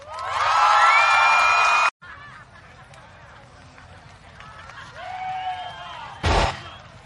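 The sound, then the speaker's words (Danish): A game show audience erupts in loud cheering and whooping for a competing team, with high-pitched shouts, cuts off abruptly, then murmurs and scattered cries rise again before a brief sharp burst near the end. “Et point for øh, publikums hyldest til jer.”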